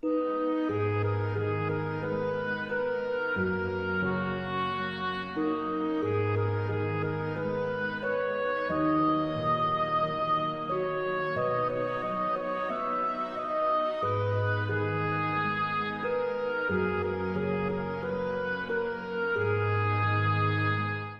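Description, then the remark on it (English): A gentle orchestral lullaby plays steadily: a woodwind melody doubled by harp over slow, evenly paced bass notes, with a faint celesta shimmering underneath. No voices. “So I think the melody kind of takes over and kind of becomes the main thing that you hear, but at the same time, you can kind of faintly hear the celesta still in the background.”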